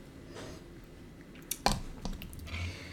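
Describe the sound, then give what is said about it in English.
A quiet sip of tea: a brief wet slurp and a couple of soft mouth clicks and swallowing sounds over low background hiss, with no talking. “I'm going to have a sip of my tea and then we'll do the Instagram.”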